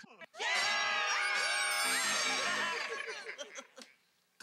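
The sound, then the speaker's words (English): A group of people scream together at full volume for about three seconds, many high voices overlapping in a loud, sustained burst that then trails off into scattered fading cries. “screaming, everybody.”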